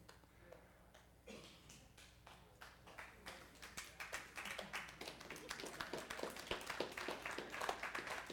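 Scattered, polite clapping from a small audience, starting sparse and gradually thickening into steady light applause over several seconds, with no one speaking.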